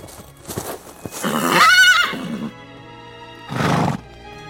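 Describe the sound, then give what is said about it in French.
A spirited grey horse ridden by a horseman lets out a loud, wavering whinny lasting about a second, followed by a shorter snort-like burst, with faint hoof clip-clops and shuffling sounds. “tandis qu'elle rêvait tristement, elle vit arriver du côté de Batna un cavalier sur un fougueux cheval gris.”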